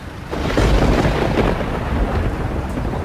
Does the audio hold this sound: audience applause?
no